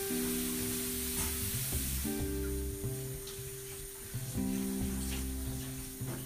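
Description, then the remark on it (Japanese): Running water pours steadily throughout, a continuous hissing rush like a tap left on, with a low humming tone shifting underneath and no voices. “ちょっとお水の音うるさいんですけど”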